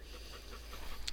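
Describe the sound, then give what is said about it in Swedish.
A police dog pants in quick, steady breaths, a short run of rhythmic huffs over a low constant hum, with no one talking. “Så det är, ja, det är ovärderligt att ha en sån hund i tjänst.”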